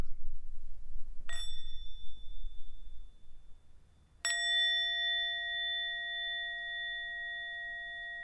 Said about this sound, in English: Let's have a sound of the bell, and then we'll move on to our next conversation in this episode.